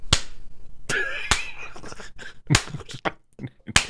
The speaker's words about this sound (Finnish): No, mun tuli se ekana mieleen semmoinen joko laiska tai tosi semmoinen sarkastinen, joko semmoinen niin sehän pitkä clap. Slow clap. Clap, clap.